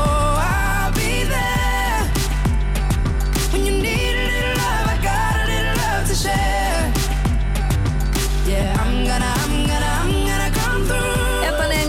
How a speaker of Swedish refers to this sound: Låten hon toppar med heter … och den låter så här.